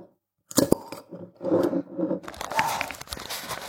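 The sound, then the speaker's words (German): A flip-top bottle of dark Schwarzbier beer being handled and opened: a run of sharp clicks, scrapes and clattering taps, then a rougher, sustained rattle and hiss toward the end, with no talking. “wie ihr gehört habt, eine Plupflasche.”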